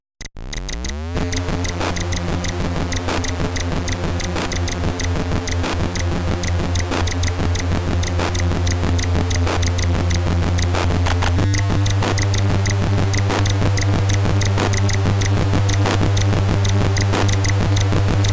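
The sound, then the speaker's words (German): Buzzy C64 SID chip music from the game Arkanoid plays steadily with no talking: a droning synthetic bass line under bright, dense square-wave tones and regular ticking percussion of digitized drum sounds, the bass stepping up to a new note partway through. “hier kann man ganz gut den Unterschied hören äh, zwischen dem alten und dem neuen Soundchip äh, bei dem Titel Arkanoid.”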